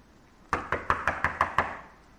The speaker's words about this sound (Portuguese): Bateu, bateu. E ela não abria a porta.